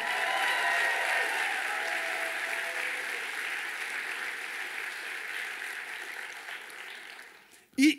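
An audience breaks into steady, dense applause that holds loud for several seconds, gradually thinning before a brief burst of a voice cuts in at the very end.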